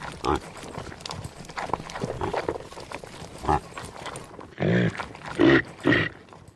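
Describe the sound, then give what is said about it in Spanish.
A reindeer gives a run of rough, throaty grunts, with a few louder bursts near the end, over a restless background of shuffling and clattering noises. No one speaks. “Es el sonido de un reno, muy bien.”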